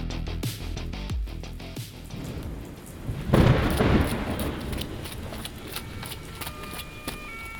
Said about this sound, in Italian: Diluvia, ancora, come in un pessimo poliziesco.